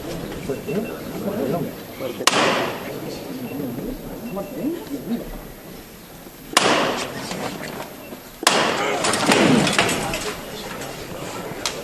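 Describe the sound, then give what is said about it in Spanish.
Three sharp, loud hammer knocks ring out at uneven intervals, the last two closer together, signaling that the procession float (paso) is to be lifted again on the third knock, over a steady murmur of crowd and voices. “Se va a levantar de nuevo el paso al tercero de martillo.”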